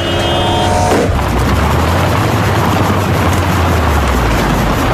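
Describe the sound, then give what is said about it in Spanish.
Loud, steady roar of road traffic, with car engines rumbling and a brief tonal hum at the start before the dense engine noise takes over; no one speaks. “El infierno es tener que salir al tráfico todos los días.”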